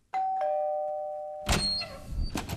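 doorbell ringing

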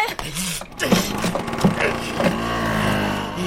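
motorcycle engine revving

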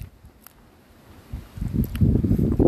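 strong wind gusting outdoors

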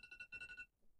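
phone alarm ringing

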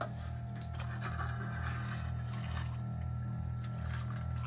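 water poured

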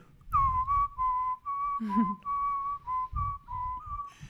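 person whistling a melody

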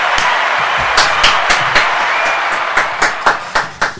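studio audience applause

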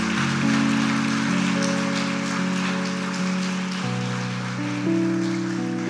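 audience applauding

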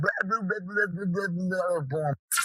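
dog barking wildly

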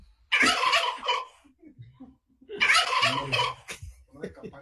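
turkey gobbling

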